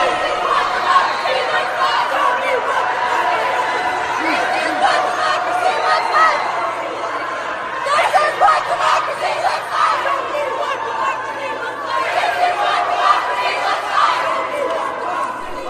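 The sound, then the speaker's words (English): A large crowd of protesters chants and shouts inside a state capitol, the dense roar of many voices rising and falling in loud, echoing waves, with indistinct words lost in the din. “It was hard to really understand what some of the chants were. I'll just play a, a quick snippet of it here, but this is what you guys heard.”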